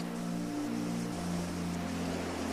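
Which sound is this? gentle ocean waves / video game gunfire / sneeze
gentle ocean waves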